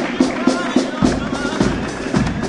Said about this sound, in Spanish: Están ahí, reciben el aplauso del público. La verdad es que lo han hecho francamente bien.